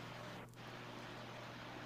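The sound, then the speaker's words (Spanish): A steady, continuous electric fan motor hum with a low droning tone and airy whoosh, unchanging throughout with no voices. “¿Suena como un motor? Así es. Ah, ya. Ah, es el carro que ríe las plantas. No, no, es el ventilador.”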